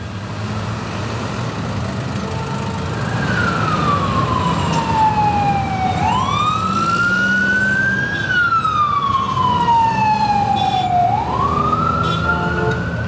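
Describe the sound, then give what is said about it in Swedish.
A siren wails up and down in long sweeping cycles over the steady roar of city traffic on a busy street in New York, loud, with no one speaking. “Gatorna i New York är alltid rastlösa.”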